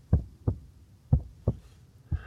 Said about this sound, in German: Ich höre den Herzschlag in der absoluten Stille, als wäre es eine Kirchenglocke, unter der ich stehe. Der Lärm ist so ohrenbetäubend, dass ich's kaum aushalte.